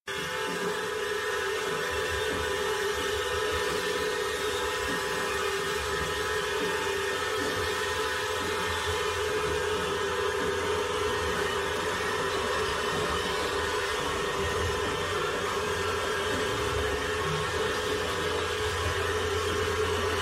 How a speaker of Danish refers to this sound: det er ikke nem musik, det er heller ikke for, for sarte sjæle, men det her det er altså en lille bid af Christoph Penderecki